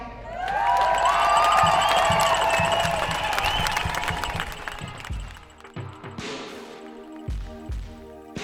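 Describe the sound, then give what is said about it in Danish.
A crowd at a Danish nurses' pay demonstration cheers loudly with whistles and shouts over dense clapping after Dansk Sygeplejeråd chair Grete Christensen speaks from the podium, the roar swelling in the first seconds and then fading into scattered applause and a few thumps. “Det var Dansk Sygeplejeråds formand Grete Christensen, som vi lige hørte her på, øh, på talerstolen til de her mange demonstrationer, der har været øh, de seneste øh, uger, ja, hen over øh, også sommeren.”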